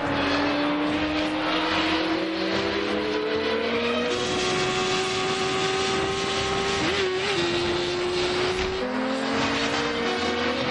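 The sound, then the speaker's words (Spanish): Four motorcycle engines roar at high speed, loud, with a continuous droning whine whose pitch rises and dips as they ride in a line along a highway crossing the desert. No one speaks. “Las cuatro motos van en fila por una autovía que cruza el desierto.”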